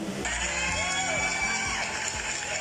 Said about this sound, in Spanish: Gracias, gracias, gracias por sus aplausos.